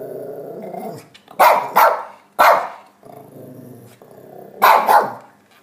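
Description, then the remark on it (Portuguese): A small dog growls low and steadily, breaking into sharp barks: a quick pair, a single bark, then another pair after more growling. Loud, with no talking. “late bem alto, nem parece que é tão pititica.”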